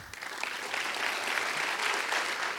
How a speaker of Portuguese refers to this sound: Pode aplaudir o Senhor.